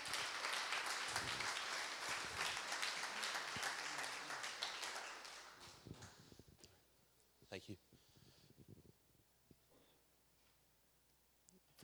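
An audience breaks into steady, dense applause for several seconds, then it tapers off, leaving a few scattered claps and soft room noises in a quieter space.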